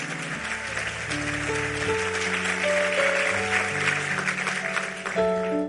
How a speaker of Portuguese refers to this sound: Aplauda Ele, porque é Ele quem prometeu.